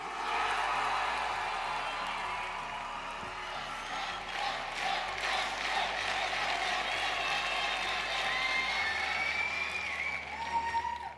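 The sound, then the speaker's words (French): An audience of 2,400 spectators at the international final of the Eloquentia 2019 speaking contest, in the grand hall of the Philharmonie de Paris, applauds steadily and loudly, dense clapping blending into a continuous roar with scattered cheers and shouts rising over it, sustained throughout. “Ces milliers d'applaudissements, ce sont ceux du public ultra enthousiaste de la finale internationale du concours Eloquentia 2019.”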